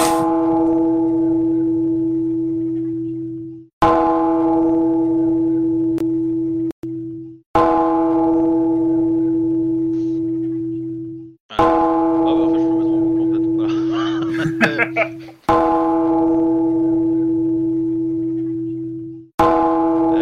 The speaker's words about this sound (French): Euh, il y, a, un con avec qui s'est amusé à sonner une, euh, cloche dans mon oreille.